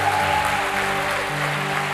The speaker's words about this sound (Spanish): Fuerte ese aplauso al que vive.